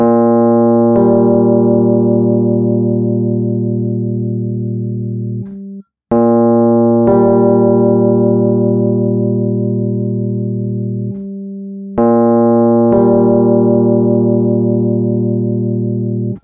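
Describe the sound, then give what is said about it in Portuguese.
Two sustained notes in a low register sound together as a major sixth interval, played three times in a row. Each steady, buzzy electronic tone lasts about five seconds with a brief gap between, and no one speaks. “Então é a sexta maior, né? Sexta maior, perfeito.”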